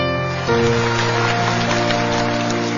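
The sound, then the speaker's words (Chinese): Steady, dense audience applause at an awards gala in Nanjing as a song is introduced, a continuous crackling patter, mixed with sustained musical tones that swell in about half a second in. No one speaks. “好，我首先在这儿为你们献歌一曲，掌声在这儿。”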